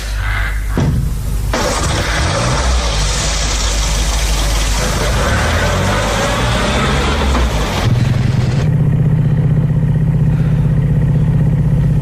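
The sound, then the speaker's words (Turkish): A car's loud engine revs and roars, pitch sweeping as the car accelerates away, then settles into a steady low drone as it drives on. “Kapat çeneni de gir arabaya Mümkün olduğu kadar çabuk uzaklaşalım buradan hadi”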